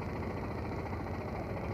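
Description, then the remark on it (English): A steady, low engine idle rumbles continuously, a dense mid-to-low hum with no talking over it, while the vehicle is stopped in a heavy traffic jam. “A point that I made earlier, in fact, we're, we're stopped here now in the middle of this horrendous traffic jam.”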